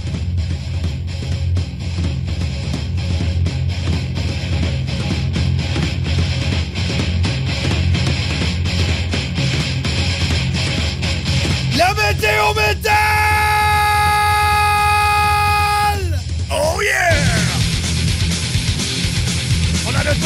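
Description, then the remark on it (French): Harsh, metal-style screamed growls roar over a loud, dense wall of distorted sound, breaking near the end into a long sustained high-pitched scream before the raw growling resumes. “et vous l'avez demandé parce que la semaine passée c'était trop bon, mais on le ramène cette semaine, c'est la météo métal.”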